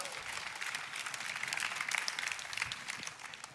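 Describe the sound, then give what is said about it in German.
An audience breaks into steady applause, a dense crackle of many hands clapping at a fairly even level throughout, easing off slightly at the end. “Applaus an dieser Stelle.”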